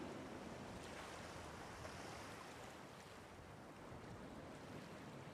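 Steady beach ambience on the beach at Banna, surf washing in continuously, a broad rushing roar with wind buffeting the microphone throughout, no voices present.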